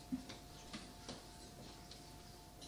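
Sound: clock ticking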